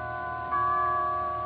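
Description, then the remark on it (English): Chimes of a big church a block away play Adeste Fideles at one o'clock in the morning after Christmas on the outskirts of Panama City, in long, sustained tones, a new note sounding partway through over the lingering hum of the previous ones. Soft and steady, with no voices. “You could hear the chimes of the big church a block away playing Adeste Fidelis.”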